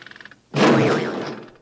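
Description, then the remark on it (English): A quick flutter of light taps, then a loud, sudden cartoon sound effect in a film of a man's head banging on the open hood of a car, its impact ringing on in a wobbly, warbling tone before cutting off. “seems upset by the word him and bangs his head on the open hood of the car to a cartoon sound effect, setting a tone for the film.”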